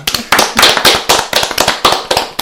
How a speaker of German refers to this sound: Also 3 zu 2 für die Mein Würfelkorn. Applaus für den Sieger.